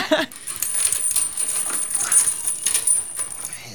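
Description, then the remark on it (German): A metal chain rattles and clinks continuously for a few seconds as it is pulled out while a boat is being moored, bright jingling with a faint whimper at the start. “Dazu nehmen wir die Kette raus.”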